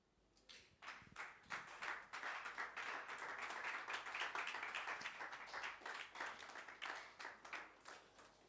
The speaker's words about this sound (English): Only seven people clap. That's okay. That's okay. That's okay. Can I clap for myself?